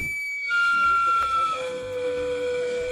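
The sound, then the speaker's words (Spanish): A sweet potato vendor cart's steam whistle in Mexico City shrieks in one long, steady note that steps down twice to lower pitches, loud over a low rumbling murmur. “Y aquí es cuando yo les diré, ¿alguna vez han escuchado al de los camotes en la Ciudad de México?”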